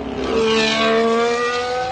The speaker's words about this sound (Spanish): Y este es el sonido del motor del Aston Martin de esta temporada de Fernando Alonso.